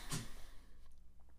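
A female dog gives one quick, sharp sneeze near the start, a short breathy burst, followed by a second of quiet room noise with a few faint small sounds.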